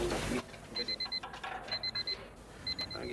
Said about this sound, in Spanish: les llamó la atención el incesante sonido de una alarma digital. Y ahí nos alarmamos bastante. Empezamos a escuchar un ruido de despertador.